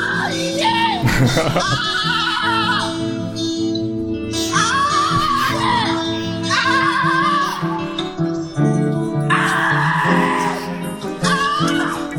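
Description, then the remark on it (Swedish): Strained, screamed vocals from a song's outro ring out in about four long, wavering bursts over a loud, steady backing of music, each cry rising and trailing off before the next. “Det var lite roligt för i typ sista versen så fanns det inte någon mer vers i den här så då bara tog jag outro-skriken.”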